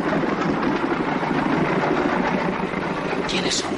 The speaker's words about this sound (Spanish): ¡Cuidado! Un coche aparca en el callejón.